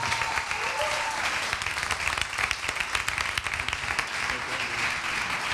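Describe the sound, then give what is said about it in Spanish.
A crowd applauds steadily, a dense, sustained wash of many hands clapping together, with faint voices mixed underneath throughout, as a church audience welcomes a pastor to speak. “quiero que recibamos con un aplauso al pastor”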